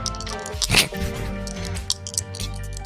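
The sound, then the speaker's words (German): Dice rattle in a closed hand as they are shaken: a sharp burst of clatter, then a string of quick, light clicks, all over a steady tonal hum. “Gegen eine 6 mag, wie die Würfel klingen, wenn man sie so schüttelt.”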